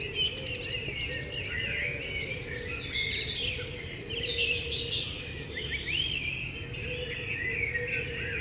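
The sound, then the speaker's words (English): A dense chorus of many birds of several different species singing at once at different frequencies, overlapping chirps, trills and whistles at different pitches, continuous over a low steady rumble, with no one speaking. “you can hear how the different species they have different frequencies of their songs, kind of like different radio stations, because they don't want to compete or they've evolved to not compete over the airwaves.”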